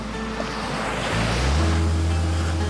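Gentle ocean waves wash onto a white sand beach at Camps Bay in Cape Town, South Africa, in a steady, continuous surf, swelling slightly louder partway through, with a low rumble of wind underneath and no voices.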